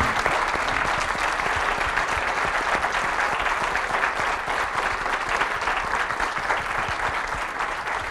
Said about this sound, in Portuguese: Acho portanto peço-vos um aplauso antes de nos irmos embora para os nossos convidados.